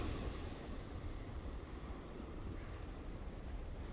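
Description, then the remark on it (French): A steady, broad wash of ocean surf rolls on without pause, a dense low rumble with soft hiss above it, like waves breaking continuously onto a shore. No voices are heard. “Ces vagues qui vont et qui viennent, comme tout ce qui se passe dans notre vie.”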